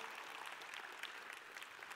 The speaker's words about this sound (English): Come on, let's give these men and women a round of applause. Come on. Thank you, fellas.